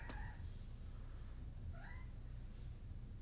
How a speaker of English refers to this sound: Okay, so we are just going over to say hi to a cat. I have two cats. Don't call me a creepy cat lady. I'm not even a lady. Okay, Midnight, come on. Well, my, mid, my midnight cat is not responding very well uh, to us